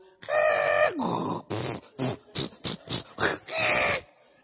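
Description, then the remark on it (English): A person vocally mimics a dial-up internet modem handshake: a long screechy tone, then a rapid series of short choppy bursts, ending in a sustained buzzing squeal, loud. “But, but back then, you see, for our internet, we had this stuff called dial-up.”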